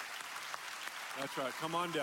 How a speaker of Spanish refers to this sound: Iglesia, denle un aplauso a estos valientes?